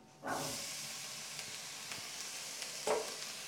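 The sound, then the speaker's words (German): Drained chickpeas are added to a browned, roasting spice base with an Indian note in a hot pan and start sizzling, a loud, steady frying hiss that stays broad and bright throughout, with a few clatters and scrapes from stirring breaking through. No one speaks. “So, und zu diesem braunen Barz, der da gleich ein bisschen vor sich hin röstet, geben wir auch gleich unsere abgetropften Kichererbsen.”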